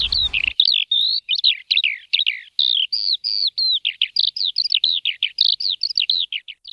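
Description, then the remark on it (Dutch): A skylark sings a rapid, unbroken stream of high, warbling chirps and trills, bright and loud throughout, with no voices present. “Ik volg zo gaarne met mijn blik de stijgerende leeuwerik.”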